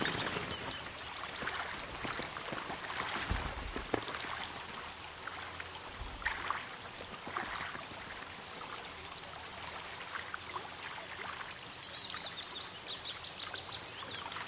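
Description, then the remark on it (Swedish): Birds from the trees splash and flutter in a babbling stream, drinking and bathing and flapping their wings so the water splashes around them; water rushes steadily while high chirps and tweets ring out, with brief bursts of splashing scattered through. “De flaxar med vingarna så att vattnet stänker omkring dem.”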